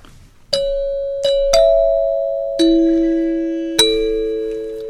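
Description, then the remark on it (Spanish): A radio station identification chime: five bright bell-like notes struck one after another at an unhurried pace, each ringing on and overlapping the next, heard alone. “acaban de escuchar ustedes magistralmente interpretada. muchas gracias, La, rúbrica. La rúbrica de, Radio, Universidad. Legendaria rúbrica.”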